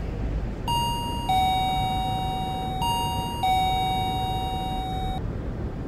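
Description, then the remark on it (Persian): An electronic intercom doorbell at a building, its button pressed with an index finger, rings twice, each ring a clear two-note chime stepping from a higher tone to a lower one, over a steady background hiss with no voices. “نگاهی از پایین به بالا به ساختمان انداخت و سپس نفس عمیقی کشید و به سمت اون قدم برداشت با انگشت اشاره شاسی آیفون را فشرد”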